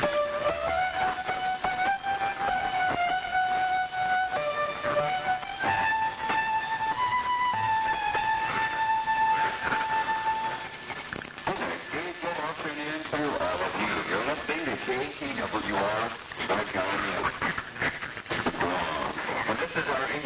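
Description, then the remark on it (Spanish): A shortwave radio broadcast comes through steady hiss and static, carrying a sustained melodic tune at first, then a talking voice that wavers and fades under the noise. “la emisora religiosa KTWR Transworld Radio el eh, de Agaña, en la isla de Guam, está dando buena recepción en la frecuencia de 11.805 kHz”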